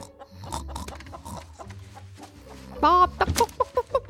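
A hen clucks in a reading of the children's story The Little Red Hen, a quick run of short, bright, throaty pulses, loudest toward the end, over a low busy farmyard murmur with softer clucks and squawks earlier on.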